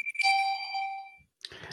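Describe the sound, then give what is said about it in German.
A phone alarm chime sounds once, clear, a bright electronic tone that rings steadily for about a second before fading. Brief muffled noise follows after a short pause. “Ach, das ist eine Erinnerung. Nee, das ist ein Alarm.”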